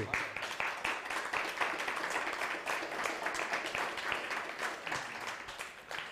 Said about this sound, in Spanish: Bienvenidos todos, un fuerte aplauso, ahora sí.